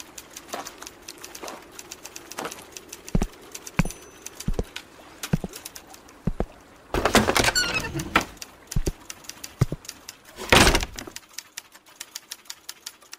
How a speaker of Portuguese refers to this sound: tu abre a porta, sente um cheiro vindo lá de dentro, assim, meio azedo.